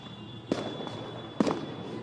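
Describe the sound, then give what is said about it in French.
Two sharp fireworks bangs burst out about a second apart, crackling briefly over a steady outdoor hum, loud enough to stand out clearly. Many fireworks are being set off at the top of the Champs-Élysées, by the Arc de Triomphe, amid festive celebrations. “Vous devez l'entendre. Il y a beaucoup de feux d'artifice qui sont tirés.”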